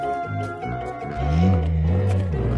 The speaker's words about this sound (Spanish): Un oso. ¿Un oso? Otra vez.